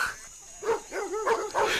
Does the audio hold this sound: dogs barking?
yes